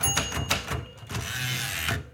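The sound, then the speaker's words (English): A typewriter's small bell rings out over a few sharp mechanical clacks, followed by the long rattling slide of the carriage being pushed back at the end of a line, fairly loud with no talking. “Oh, I always love that little bell.”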